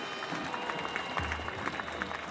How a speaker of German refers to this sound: Es ist mir eine besondere Freude, jetzt ankündigen zu dürfen, den Kanzler der Bundesrepublik Deutschland. Begrüßt mit mir mit einem kräftigen Applaus Kanzler Olaf Scholz.